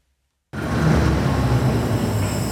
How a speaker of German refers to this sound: Es hat Verkehr am Bildweiher.